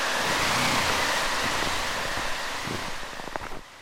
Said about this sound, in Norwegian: Det vi hørte i bakgrunnen nå, er store vindmaskiner med kald luft som står rettet mot grensen til Norge.